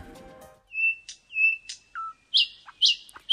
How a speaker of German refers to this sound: Aber äußerlich erkennen, das können die wenigsten. Denn mit ihren dunkelbraunen Flügeln und dem hellbraunen Bauch ist die spatzengroße Nachtigall ein eher unauffälliger Vogel, bis sie eben den Schnabel aufmacht.